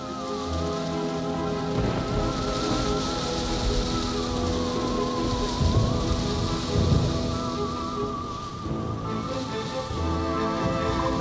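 Steady rain pattering down on a surface, a dense continuous hiss of drops that holds an even loudness throughout, with a faint tonal hum underneath and no voices.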